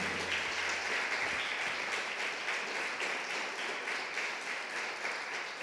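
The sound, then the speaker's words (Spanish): A large crowd applauds the Lord steadily and loudly, dense clapping continuing for several seconds without pause and fading only slightly at the end. “Únete a ese Dios y dice, dele fuerte el aplauso al Señor.”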